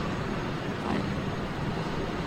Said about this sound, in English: The helicopter just the helicopter just landed. It landed like in a place I can't really see. I can just hear it now